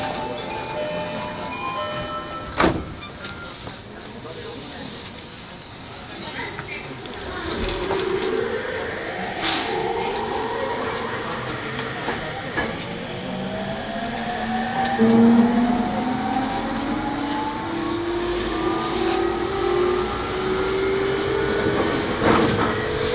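An E231 series Yamanote Line electric commuter train on the outer loop in Tokyo accelerates, its motor whine rising in pitch in a series of steady, climbing tones over a constant rumble of wheels and rolling noise, with a sharp clunk early on.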